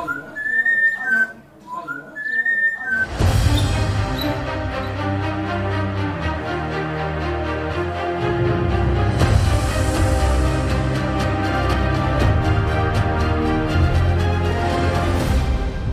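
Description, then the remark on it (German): A parrot whistles a few short, bright rising notes for about three seconds after a few sips of red wine, then loud full-band music bursts in and carries on to the end. “Schon nach ein paar Schlucken fängt der Vogel an zu pfeifen.”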